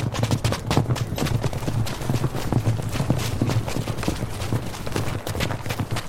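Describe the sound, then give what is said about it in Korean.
Ridden horses gallop hard toward a remote hut on Baegaksan mountain, hooves pounding in a fast, steady rhythm, loud and continuous throughout, with a low rumbling undertone and no voices. “힘차게 달리던 말발굽 소리는 백악산 속 외딴 움막 앞에서 우뚝 멈추고”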